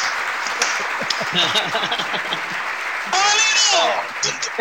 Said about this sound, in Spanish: Yo después pongo aplausos, señores.